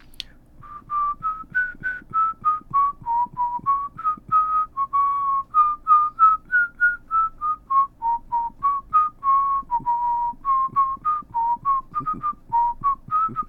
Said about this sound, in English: I began whistling Ode to Joy, which is something that I do very often when I'm bored or anxious.